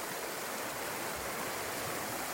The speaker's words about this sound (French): Voilà, je suis arrivé à la première rivière, un peu compliquée à franchir. Comme on peut l'entendre, il y a quand même pas mal de courant. Mais euh, il y a des petits îlots, donc euh, ça devrait aller.